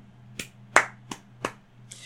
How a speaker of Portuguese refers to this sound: Uma salva de palmas para o Juliano.